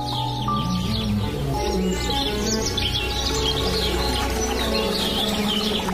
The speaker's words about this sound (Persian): پشت آواز گنجشک ها که بیایی میرسی